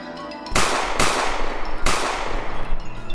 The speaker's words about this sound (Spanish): Los tiros van al aire, a lo más iluminan un poco la última ruta que toma Anzac antes de desaparecer.